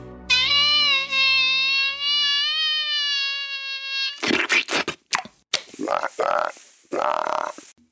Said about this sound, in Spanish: Ay, perdón, hijito, es que pasó una mosca.